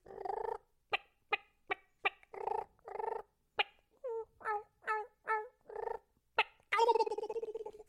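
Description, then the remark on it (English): A man mimics turkey calls with his mouth alone, no call device: a loud run of sharp clucks and nasal yelps in uneven rhythm, ending in a rapid, rattling gobble. No one speaks. “the voice turkey calling part came from my dad raising raising these little ones up to to adult and repeating them”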